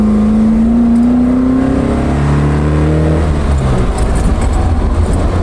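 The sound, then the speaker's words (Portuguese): An Alfa Romeo car engine revs loudly, its exhaust note climbing in pitch, then shifting down and settling into a steady, throaty drone. No voices are heard. “esse som, a proximidade dos pedais, esse som do escape.”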